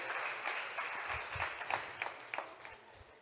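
An audience applauds steadily, many hands clapping in a dense, even wash with a few sharper individual claps standing out, sustained at a moderate level with no voices.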